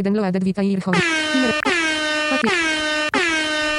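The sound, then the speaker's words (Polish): A loud, blaring air horn sound effect played from a soundboard pad blasts repeatedly, four long overlapping honks in quick succession, harsh and brassy, following a brief burst of other tones at the start. “Bo właśnie, na przykład ten yy, klakson taki jakby”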